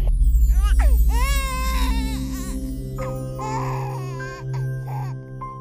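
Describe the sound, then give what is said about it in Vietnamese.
An infant cries in repeated wavering wails, rising and falling for several seconds, fairly loud over a steady low droning hum. “Cô không còn nghe thấy những tiếng khóc của con”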